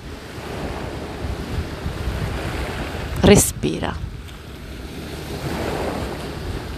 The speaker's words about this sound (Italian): ascolta le onde del mare nella tua testa